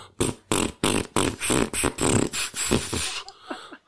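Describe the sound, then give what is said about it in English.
A voice imitates a rapid string of farts, as if farting with each footstep while running down a hill: around ten loud sputtering bursts in a quick steady rhythm that run together before trailing off into a couple of softer puffs. “I remember one time I was running down a hill, and I, went, and I had to fart, and like every time my foot touched the hill, I was going.”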